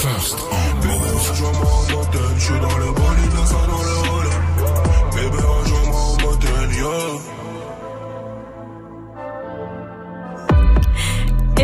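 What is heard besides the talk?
rap song playing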